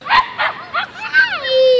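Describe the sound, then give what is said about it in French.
Puppies of various sizes and breeds bark and yip in a quick run of four high-pitched bursts, fairly loud, ending in a drawn-out whining yelp, at a venue where breeders sell puppies to visitors. “Ici, il y a des chiots de toutes les tailles et de toutes les races.”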